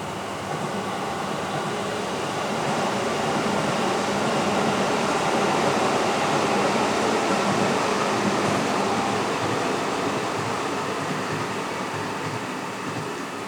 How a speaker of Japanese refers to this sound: そして今日はですね環境音第2弾ということで雨と電車の音をお届けしようかなと思いますあ電車がちょうど来ました